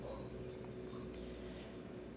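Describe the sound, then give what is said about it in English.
A dog growls low and steadily for a couple of seconds while eating a treat, a quiet, continuous rumbling snarl with no talking over it. “He's like eating a treat and he's just growling because my other dogs exist in the same area.”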